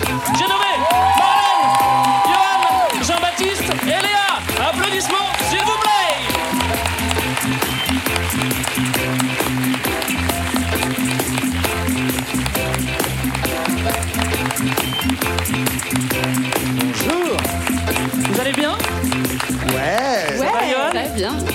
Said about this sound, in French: Je vous demande, s'il vous plaît, de faire un tonnerre d'applaudissements pour l'équipe de Culture 2000 que vous voyez derrière moi.